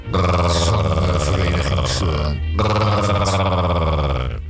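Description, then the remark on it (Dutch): A person growls in two long, loud, throaty bursts split by a brief pause, the voice low and rough with a buzzing, strained edge. “hier begint iemand te grommen.”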